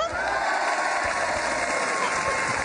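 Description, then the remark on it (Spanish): A crowd cheers and applauds loudly and steadily, a dense wash of voices shouting and whooping together with no pause, sustained for a few seconds. “gracias por esos aplausos tan maravillosos.”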